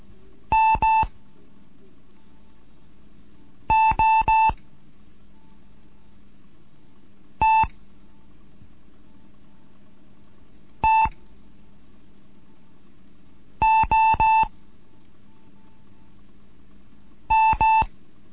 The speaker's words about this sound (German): Hier ist DGOT 1 Kilo November mit einem Morseunterricht für Anfänger. Heute die dritte Lektion mit den Buchstaben T, M und O.